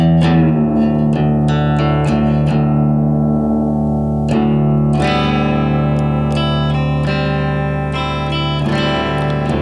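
Electric guitar strums a rich, ringing chord in an open alternate tuning, roughly a D11 chord with a C major shape on top, repeated several times with sharp attacks and long sustain, loud, colored by effects and reverb, with no talking.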